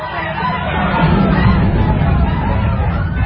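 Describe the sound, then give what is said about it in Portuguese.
A large crowd of Israelites shouts and roars together as the ark of the covenant arrives at their camp, a loud, sustained wall of voices, steady and dense throughout with no pauses. “Quando a arca chegou, os israelitas gritaram tão alto”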